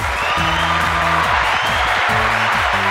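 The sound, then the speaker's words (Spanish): An applause sound effect played on the Vandal Radio program: a loud, continuous wash of crowd applause and ovation fills the whole stretch, dense and steady, with low tonal cheering or whooping layered underneath. “No es el mejor efecto de aplausos que he podido encontrar, pero bueno, que vaya para todos y todas las que escucháis este programa cada semana, pero sobre todo el de la semana pasada, este gran aplauso y ovación”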